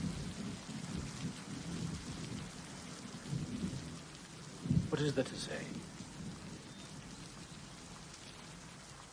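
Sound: rain falling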